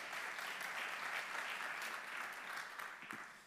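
An audience applauds steadily, a dense wash of many hands clapping at an even, fairly loud level for the whole stretch, with no talking over it.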